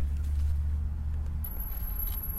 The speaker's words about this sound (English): Ooh, it's the Amazon truck.